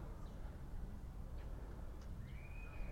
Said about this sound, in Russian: Да, слышно. Чик-чик. Птицы поют.